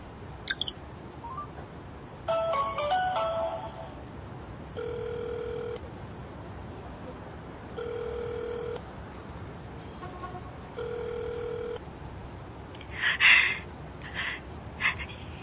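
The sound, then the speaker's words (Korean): A phone line rings out while waiting for an answer: three steady one-second ringback tones, evenly spaced, after a quick burst of dialing beeps, with faint background chirps near the end; the call goes unanswered. “왜 이리 전화를 안 받지?”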